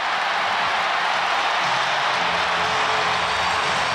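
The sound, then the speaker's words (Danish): A crowd in Parken stadium on a summer evening roars after Janne Thomsen scores for the Danish women's football team to make it 1-0 to Denmark, a loud, dense wall of cheering that holds steady for the full few seconds with no one speaking over it. “Parken jubler for første gang over et mål scoret af de danske fodboldkvinder.”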